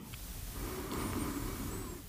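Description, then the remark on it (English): A slow, deep breath drawn in during a loving-kindness meditation practice, a soft steady rush of air lasting a couple of seconds, quiet, with no talking. “You're going to breathe deeply, gather your breath, breathing in”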